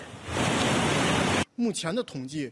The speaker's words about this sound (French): Même dans les villes, les images sont impressionnantes, comme ici, en plein Pékin, où le déluge menace d'emporter les véhicules.